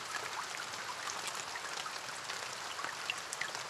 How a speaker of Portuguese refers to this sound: Ainda é verão, mas a chuva acordou-os naquela manhã.